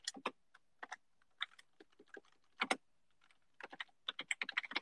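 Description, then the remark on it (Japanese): Quick, uneven bursts of computer keyboard typing for an image search, crisp, with short pauses between clusters of keystrokes and a rapid flurry at the end. No one speaks. “うん、えー、ちょっと画像検索かけちゃうぞ。”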